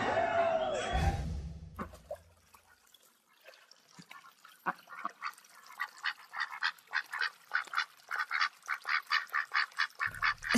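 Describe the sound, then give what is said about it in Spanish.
A duck quacks repeatedly in quick, rhythmic bursts, loud, with the calls growing steadier and more regular over time after a brief opening swell of other sound. “nuestro protagonista es un pato que después de una vida, cómoda vida”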